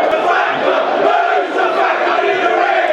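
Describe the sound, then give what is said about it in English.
A large football crowd chants together in a stadium whose three stands are about three-quarters full, a loud, sustained wall of massed voices with a steady, rolling swell and no clear individual speech. The chant is aimed at a man in the Hull end. “he may not be the most um, likable of people from uh, drawing that from the chant we just heard”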